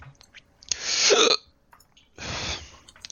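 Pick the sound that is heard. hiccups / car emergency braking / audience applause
hiccups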